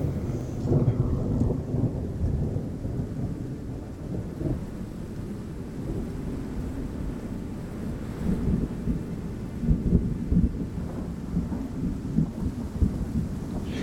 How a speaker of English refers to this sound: And above all of this, dark clouds brood. They already dump rain in the distance, and you can hear the first drops starting to sprinkle on the land around you, and then feel the first wet, cold drops spittle on your skin.